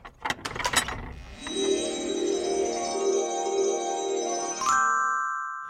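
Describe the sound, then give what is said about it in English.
A mechanical robot advent calendar door, door number one, being opened on the 1st of December: a quick burst of ratcheting clicks, then a steady, humming motor whir that shifts to a higher, brighter tone near the end. No one speaks. “And today it's the 1st of December, so we're going to be opening up door number one of our lovely robot advent.”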